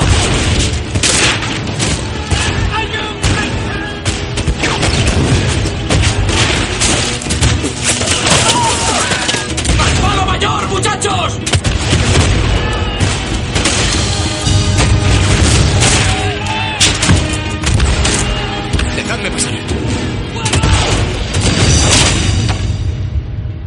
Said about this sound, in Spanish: cañones ingleses han barrido la cubierta de la Acheron. Su palo mayor, el que ha sido más castigado por la batería inglesa, se desarbola hasta caer al mar.